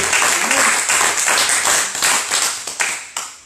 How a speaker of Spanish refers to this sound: Alégrese, aplauda, grite.